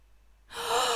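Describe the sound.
After a moment of quiet, someone makes a mouth sound imitating spitting: a single breathy, hissing burst of air, fairly loud, lasting about half a second with no talking.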